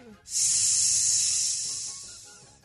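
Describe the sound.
A voice imitates a snake's hiss with one sustained, fairly loud breathy hiss that starts abruptly and slowly fades over about two seconds, heard alone.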